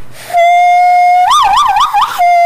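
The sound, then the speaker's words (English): A loud hand whistle holds one steady, piercing note, then warbles up and down in pitch four or five times before settling back to the steady tone. No one talks over it. “Um, I can whistle with my hands.”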